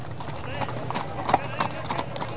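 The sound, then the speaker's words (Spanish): Horse hooves clip-clop in a steady, uneven rhythm while a horse whinnies, with a low murmur of voices and crowd noise underneath, as more than a hundred mounted Security Guard members armed with sabres and revolvers guard an anarchist rally. “La movilización anarquista fue custodiada por más de un centenar de miembros de la Guardia de Seguridad, montados a caballo y armados con sable y revólver.”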